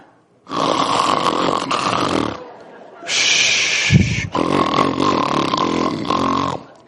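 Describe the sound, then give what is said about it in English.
A man loudly imitates snoring with his voice, three long rasping snore sounds in a row, each a couple of seconds, forceful with brief pauses between, depicting Jesus asleep on a pillow in the stern of a boat. “was asleep on a pillow. Now my wife tell me, can that's how I sound?”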